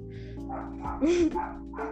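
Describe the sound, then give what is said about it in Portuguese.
A pet dog barks several times in quick, yappy bursts, moderately loud, with a steady low hum underneath and no talking. “Desculpa meu cachorro latino, tá?”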